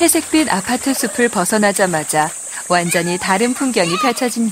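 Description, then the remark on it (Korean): A steady, high-pitched buzz of cicadas and chirping grass insects runs continuously in the background at a village after-school study room called Peaceful After-School, by a flowing stream below a low mountain in Donam-dong, Chilgok, Daegu, South Korea, while a man narrates over it in a calm voice. “매미가 울고 풀벌레 소리, 시냇물이 흐르고 나지막한 산 아래로 작은 학교가 있고 그 건너편 텃밭이 있는 지붕 낮은 집.”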